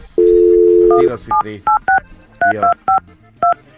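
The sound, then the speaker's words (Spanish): A steady dial tone for about a second, then a quick series of short electronic keypad beeps as a phone number is punched in to place a call, each tone a crisp two-note chirp, loud. “Este, vamos a marcarle”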